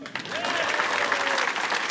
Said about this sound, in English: Uh, thank you very much to all who've come here today to show support uh, for the human rights organisation Amnesty International and for great comedy. Please give yourselves a big, smug, middle class round of applause.